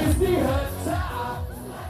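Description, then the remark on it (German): A concert audience at an on-board concert on a cruise ship cheering and shouting together, many overlapping voices forming a loud, steady roar with a few higher-pitched yells rising out of it for the full two seconds. “Bevor ich euch jetzt aber entlasse, habe ich für euch natürlich noch eine kleine Kostprobe von unserem Bordkonzert eingefangen.”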